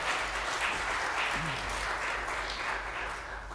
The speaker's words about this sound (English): Let's hear one more applause for him. That was great sax solo.